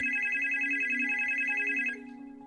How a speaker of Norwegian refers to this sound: Klokken 06.44 ringer det hos en av de kvinnelige operatørene.